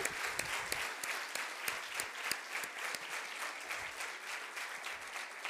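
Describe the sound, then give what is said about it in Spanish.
Women at a women's conference clap for those connected online, a dense, continuous patter of hand claps that holds at an even level throughout, with no voices standing out. “¿Y qué tal si todas las que estamos acá le damos un fuerte aplauso a los que se conectan?”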